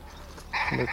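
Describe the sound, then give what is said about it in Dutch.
A willow ptarmigan's alarm call: one loud, harsh, nasal croak that bursts in midway and lasts about half a second, buzzy and bleat-like, over a low steady background rumble. “Dat is de alarmroep van, van een moerassneeuwhoen.”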